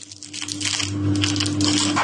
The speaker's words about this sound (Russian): На столе перед ним три пары стеклянных зрачков. Мастер поочередно вставляет их в пустые глазницы волка, примеряет.